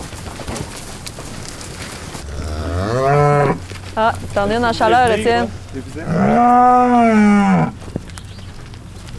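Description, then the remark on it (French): Cows in a field moo loudly, several long drawn-out calls in a row, with a brief exclamation from a person between them and a quiet outdoor background. “les vaches!”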